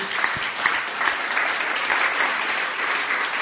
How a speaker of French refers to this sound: je remercie euh, tous nos intervenants. On peut les applaudir hein, pour cette deuxième table ronde.